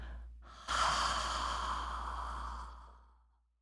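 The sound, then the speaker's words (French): A short, quiet intake of breath gives way to a long, airy exhale that fades out slowly, clear with no talking, during a guided breathing exercise. “Une dernière fois, inspirez. Et en expirant, lâchez prise intérieurement avec le son.”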